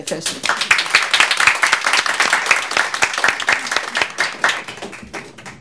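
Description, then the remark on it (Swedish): An audience breaks into sustained, lively applause welcoming the Nervösa Damteatern theatre group, many hands clapping in a dense, steady patter for several seconds before it begins to thin out near the end. “En stor applåd.”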